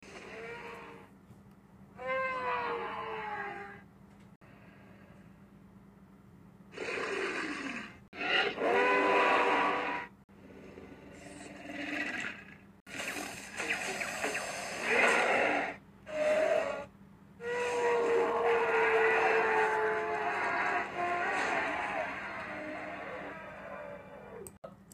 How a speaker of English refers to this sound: Um, Rudy, the giant baryonyx in Ice Age Dawn of the Dinosaurs, was voiced by crocodilian hisses and the trumpeting of elephants during the mating season.